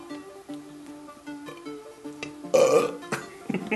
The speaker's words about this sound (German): Und dann auch einfach noch einen Rülpser dahinter setzen, dann ist der Podcast zu Ende.